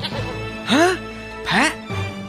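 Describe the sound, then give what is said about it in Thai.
A goat bleats twice, two short wavering cries about half a second apart, fairly loud, over a steady low background drone. “ยักษ์ตนนั้นแปลงร่างเป็นแพะ หวังลวงให้ตามไปยังที่อยู่ของตน”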